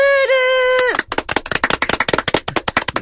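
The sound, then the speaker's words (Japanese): A steady held tone gives way to a flurry of hand claps, loud and uneven, several hands clapping out of sync with no shared rhythm for about two seconds. “はい、まあちょっとあの、膠着失格の新ルールの特集なんですけど、拍手が、ちょっと今回はあまり 合わなかったまあ次回からちょっと考えましょう。”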